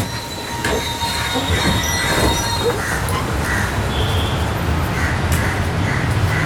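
A moving passenger train rumbles steadily along the rails, with a constant low roar and occasional high metallic squeals from the wheels, fairly loud throughout.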